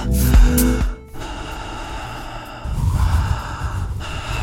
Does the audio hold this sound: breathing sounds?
yes